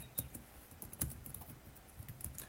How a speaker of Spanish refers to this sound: Suena, suena el teclado, suena el teclado. Suena el teclado.